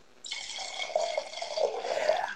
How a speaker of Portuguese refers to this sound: Um som do vinho caindo dentro da taça.